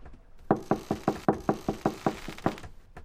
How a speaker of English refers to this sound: But before passing out, drunk as he was, he reached the prince's chamber and knocked.